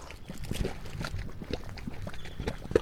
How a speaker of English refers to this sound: The mud pots of Yellowstone National Park are acidic springs of hot, muddy water that form in geothermal areas. Various gases from deep within the earth escape through the wet clay mud, causing it to bubble.